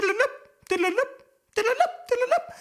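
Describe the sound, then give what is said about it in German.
A voice imitates a vehicle's assigned radio five-tone alert sequence, as sent over radio for alerting, humming short bursts of stepped pitches in two quick pairs with brief pauses between, fairly loud and clear. “Da hatte jedes Fahrzeug eine zugewiesene Fünftonfolge. Die klang dann so.”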